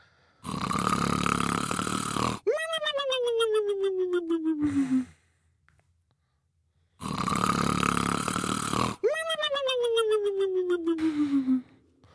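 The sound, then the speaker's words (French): A voice imitates a friend's and its own loud snoring while sleeping, twice: each cycle is a long, rasping inhale followed by a droning, tonal exhale that slides downward in pitch, then a brief pause before it repeats. “Et sauf que mon pote, il ronfle comme un porc, faut le dire. Moi, je ronfle comme un porc aussi.”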